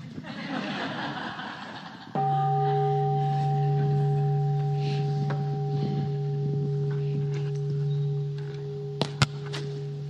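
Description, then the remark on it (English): A meditation bell is struck once, its steady, ringing tone with layered overtones sustaining for several seconds over faint background chatter and a few soft knocks. “Oh, ring a bell. Okay.”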